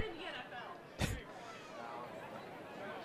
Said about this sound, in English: Got some chatter on the crowd mic there. That's coming from the camera bay off to our left.